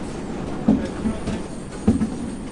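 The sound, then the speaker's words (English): Two dull clunks, about a second apart, as books are shot off a conveyor belt into a gray plastic bin by a massive machine that rotates the belt, over a steady mechanical rumble of running machinery. “That clunking sound you hear is the sound of a book being shot off the conveyor belt and into a gray plastic bin.”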